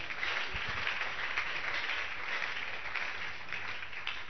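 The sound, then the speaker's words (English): A crowd claps hands together for the Lord in sustained, dense applause, a steady wash of overlapping claps holding an even loudness for several seconds with no voices standing out. “Clap your two hands together for the Lord.”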